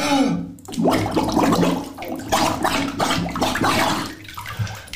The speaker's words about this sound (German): habe ich ja unter Wasser probiert zu pfeifen.